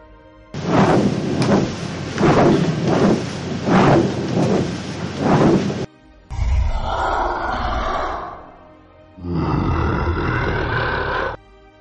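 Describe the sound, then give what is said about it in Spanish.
A loud thunderstorm: a long, rolling rumble of thunder swelling in repeated surges, then a brief break and two shorter deep, growling peals, with no voices. “Un día de tormenta, Bastian el dragón, que lo observaba todo desde las alturas, decidió darles una lección.”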